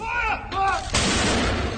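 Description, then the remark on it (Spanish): A single heavy cannon blast from a 41-gun salute, fired by military formations across the United Kingdom and Royal Navy ships at sea in memory of Prince Philip, booms out and rolls into a long rumbling echo, preceded by a brief, faint voice-like call in the open air. “El sábado, las formaciones militares de todo Reino Unido y los buques en el mar de la Armada Británica dispararon salvas de 41 cañonazos en memoria del príncipe Felipe.”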